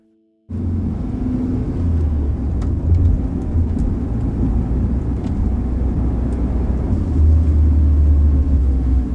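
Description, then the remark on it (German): A car drives and pulls in to park as Hector parks it, its low engine rumble starting abruptly and holding steady throughout, with faint clicks and knocks above the drone and no voices. “Hector parkt den Wagen.”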